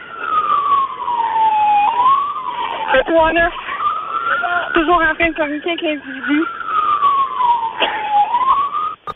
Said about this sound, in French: là, les sirènes, je vous entends pas du tout.